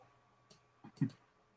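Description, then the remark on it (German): A few quiet computer mouse clicks in quick succession, crisp against a faint background hum, with one single click followed by a tight cluster of two or three, as someone clicks OK in a software tool to run an evaluation. “klickt man quasi auf OK und dann wertet es das Tool aus.”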